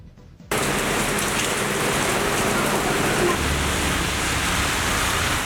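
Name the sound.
rain falling outside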